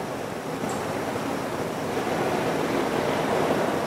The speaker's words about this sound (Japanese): ハワイ諸島の一番大きなですねマザーアイランドっていうんですけどハワイ島の方でですね収録をしています海外に来る時はなるべく野外でやりたいと思っているので波の音がですねかすかに聞こえますかね